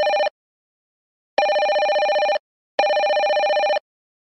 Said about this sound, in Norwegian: Oi, nå ringer telefonen.